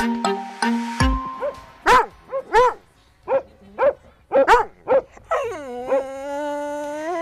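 A loud dog lets out a quick series of sharp barks and yips, about eight in irregular rhythm, then ends with a long, drawn-out whimpering whine. No one speaks.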